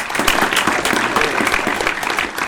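A steady burst of audience applause, dense overlapping claps forming a bright, continuous wash of noise at an even level throughout, with no voices speaking. The applause welcomes a music collective introduced for an interview.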